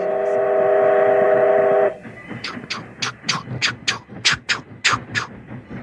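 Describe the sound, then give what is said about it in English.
A voice imitates a steam freight locomotive going by: a long, steady whistle-like hoot, then a quick, regular run of breathy chuffing bursts of steam from the engine picking up a rhythmic chugging beat, fairly loud. “It's a chugging sound, eh?”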